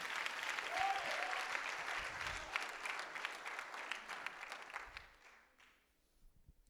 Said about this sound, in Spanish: Dele fuerte ese aplauso al Rey de los cielos.